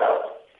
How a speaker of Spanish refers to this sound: Ay, eh, perdona por el perro, están llamando. Ya, ya te oigo, que tienes un perrito por ahí.